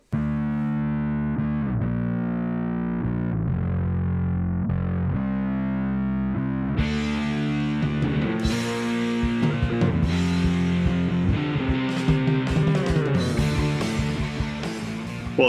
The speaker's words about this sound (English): You ready for the actual episode? Absolutely. Cue up the intro music.